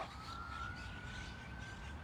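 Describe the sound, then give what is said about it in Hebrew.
An emergency vehicle siren in a park holds a thin, steady high tone that rises slightly, heard faintly outdoors over a constant low rumble of background noise, with no voices. “זה אה, סירנה, אפשר לנשום.”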